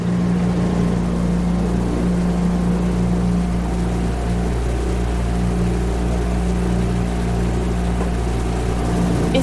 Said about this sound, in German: Und dann durch das Boot natürlich auch die Motorgeräusche, aber auch dieses kleine Plätschern hat. Es fühlt sich so ein bisschen fast an, als ob man auf einem stillen Meer wäre.